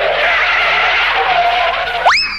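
Car tires skid loudly for about two seconds, a harsh hissing screech that ends in a sharp rising squeal. No voices.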